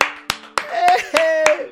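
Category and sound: crowd, applause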